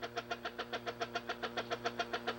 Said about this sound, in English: Placing my finger over the end of the hose, causes the vacuum to activate and we have a reading of 30 on the gauge.